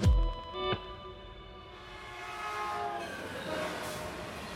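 A passenger train travelling from San Francisco to Mountain View, California, in spring 2014 rolls along the rails with a steady rumble and bright metallic ringing tones, starting with a sharp low thump and continuing at a moderate level.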